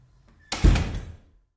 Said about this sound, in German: Da war, da war sie zu, die Tür. Ja. Eine zuschlagende Tür, aber ich glaube, das war so einfach.